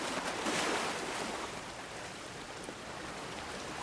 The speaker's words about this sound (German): Mit jedem Atemzug nimmst du und gibst du, wie die Wellen im Hintergrund, rein und raus.